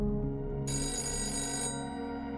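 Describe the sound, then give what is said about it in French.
A telephone bell rings steadily and fairly loud, its bright metallic trill sustained for about a second over a low, constant hum, with no voices; the call is from Elton John one evening. “Elton John téléphone un soir, moment de gloire pour le jeune homme”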